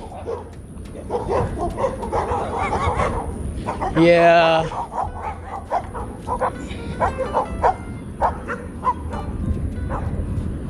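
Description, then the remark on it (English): Several dogs bark repeatedly, one sharp, loud bark standing out, while a person talks over the noise. “One person barks and the rest of them like starts barking.”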